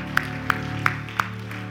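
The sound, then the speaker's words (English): An audience at an Elevate Life Church service gives God a praise clap together in a steady beat, four sharp, evenly spaced claps over a sustained, low musical drone, with no voices. “Give God a good praise clap.”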